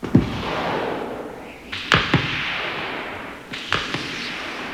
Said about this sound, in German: nur in der Ferne den Kampf sozusagen, die Schüsse fallen und, ja.